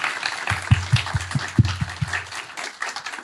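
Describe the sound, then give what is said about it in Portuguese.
An audience claps along in a steady, rhythmic beat to praise God and Jesus, with several claps overlapping into a broad, bright wash of applause, with a low thumping pulse beneath. “Vamos louvar a Deus com as nossas palmas.”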